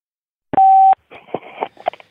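A single loud, steady telephone line beep lasting under half a second, signaling that a caller is now on the Beautiful Anonymous call-in show with the host, followed by a voice starting to speak over a phone connection.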